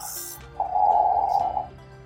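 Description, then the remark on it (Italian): A voice imitates a snore: one drawn-out, buzzing nasal rasp lasting about a second, fairly loud, with a short breathy sound just before it. “è lì che russa, ragazzi, addormentata nelle sue tradizioni, superstizioni, e non solo la Chiesa cattolica, anche quella evangelica, gran parte di quella evangelica.”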